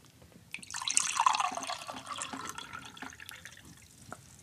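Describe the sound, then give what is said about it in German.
Water is poured into a glass, glass number 1, held up under the microphone, in a steady, bright splashing stream lasting a few seconds, with a rising gurgle as it fills, then tapering off into a few faint drips. “Und natürlich jetzt mal das unter das Mikrofon heben.”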